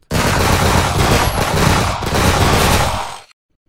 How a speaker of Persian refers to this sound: پنجاه سرباز ایستاده بودند. به صف اول فرمان شلیک دادند. آنها شلیک کردند و نشستند. بلافاصله به صف دوم فرمان شلیک دادند آنها هم شلیک کردند و نشستند صف سوم بدون فاصله شلیک کردند